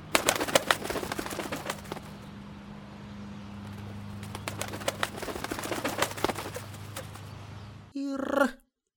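Pigeons coo in a low, continuous murmur, overlaid with frequent sharp clattering taps and flutters, before a brief louder harmonic call cuts in at the very end.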